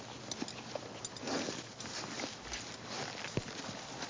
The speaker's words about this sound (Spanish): Las piedras se fragmentan bajo los cascos de las bestias. Sus voces y sus pasos constituyen un sonido polifónico, ambiental, que se integra con el viento y el trinar de las aves.